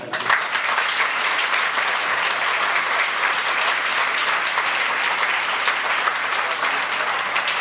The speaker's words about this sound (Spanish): ¿Es Señor de tu vida? Dale un aplauso.